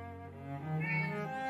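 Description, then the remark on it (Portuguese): A 19-year-old female pet cat lets out one long, drawn-out meow, its tone swelling and rising in the middle before tapering off, with no one talking. “Eu, é minha gatinha. Fala aí,”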